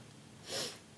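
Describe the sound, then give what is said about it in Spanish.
A single quick sneeze, a sharp breathy burst lasting about a third of a second that rises out of a quiet background and fades, with no talking around it. “salud.”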